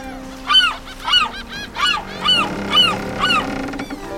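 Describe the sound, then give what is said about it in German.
Seagulls screech in a rapid series of about seven harsh, harmonic cries, each rising and falling, loud, with no voices present. A few gulls circle in the sky above a coastal town at midday. “Nur ein paar einsame Möwen zogen kreischend ihre Kreise vor dem azurblauen Himmel.”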